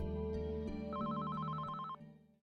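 Holme's telephone in Oslo rings with a steady warbling electronic tone, fairly loud, sounding alone without any voices before cutting off near the end, as the Norwegian press tries to reach him.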